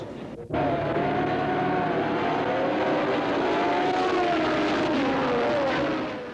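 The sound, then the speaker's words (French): After a brief quiet moment, a loud, sustained roar of Formula 1 race cars, including a Lotus and Ferraris, erupts at the start of the Grand Prix in Montréal, with high engine whines rising and overlapping as the pack accelerates away. “Dès le départ, une Lotus, la grande adversaire de Ferrari, se porte en tête et prend de l'avance.”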